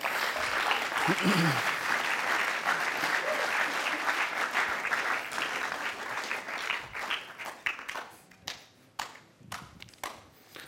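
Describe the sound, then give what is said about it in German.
An audience at a talk bursts into sustained applause for a speaker, a dense wash of clapping that holds steady, then thins out toward the end into scattered individual claps before stopping. “Darum freue ich mich sehr, dass du heute über authentisch sein redest und äh, mir zu tun musst, dass wenn jemand daherkommt als gestern, dann geben wir einen riesen Applaus.”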